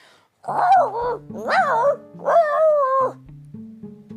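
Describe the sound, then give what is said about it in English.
A dog, Pluto, howls in three long, wavering cries that rise and fall in pitch, loud, with soft steady musical tones running underneath and continuing after the howling fades. “Pluto, Pluto howled.”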